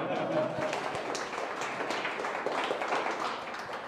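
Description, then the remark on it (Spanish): A crowd applauds steadily, dense clapping at a fairly loud level for a few seconds, with some voices mixed in beneath it. “Basta, bastante bien, un aplauso.”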